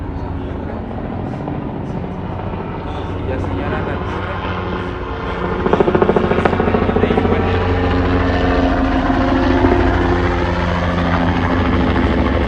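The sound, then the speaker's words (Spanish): An airplane drones loudly overhead, its steady engine roar swelling partway through, while a person speaks briefly beneath the noise. “Eso es un avión, güey.”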